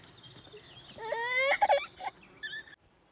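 A baby who wants to drink and sleep fusses and whimpers in a few short, whiny bursts with wavering pitch, fairly loud, before falling silent near the end.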